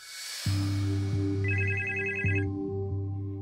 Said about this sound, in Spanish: En casa de Xavier Faliu, Chevy suena el teléfono.